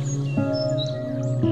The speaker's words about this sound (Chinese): 你仿佛就像是赤脚踩在这个草地上一样。你可以在草地上到处的走走，你甚至可以听到小鸟的叫声